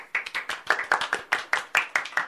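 A small group claps in someone's honor in a steady, quick rhythm, roughly a dozen sharp claps, with no talking.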